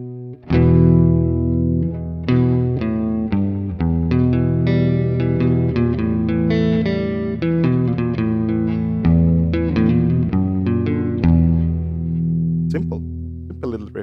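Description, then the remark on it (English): An electric guitar riff centred on E minor and A minor played alone with a processed, chorus-like distorted tone: a steady run of ringing notes with a rhythmic pulse, loud throughout before fading on a final struck chord. “can, can we hear his riff again though? Because we only heard it yeah, once.”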